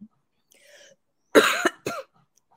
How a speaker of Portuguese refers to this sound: a gente combina de torcer um, tossir um de cada vez para o pessoal não ficar achando que é, isso aqui é uma conversa hospitalar.